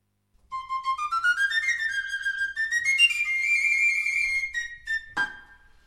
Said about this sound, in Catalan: De fet, a vegades, quan els escoltes no distingeixes qui és qui, i això encara els fa més grans. A veure si els podeu distingir amb aquesta sardana que escoltarem ara.